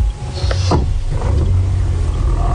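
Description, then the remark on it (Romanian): A car engine idles with a steady low rumble throughout as people get into the car, with a brief higher-pitched clatter and rustle early on, like movement inside the vehicle. No one speaks. “Deci intrăm în mașină.”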